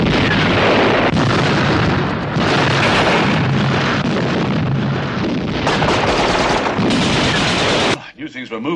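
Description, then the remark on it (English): A massive, sustained roar of a fuel dump blowing up mixed with rapid gunfire fills the scene for several seconds, loud, with repeated fresh blasts, before it cuts off and a voice briefly speaks. “Blow the fuel dump, and while they fight the fires, grab a boat.”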